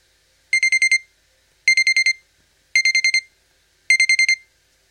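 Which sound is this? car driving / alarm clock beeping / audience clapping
alarm clock beeping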